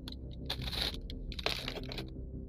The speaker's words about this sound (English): Anyways, I, I get distracted easily, guys. Sorry. I'm sorry for chewing.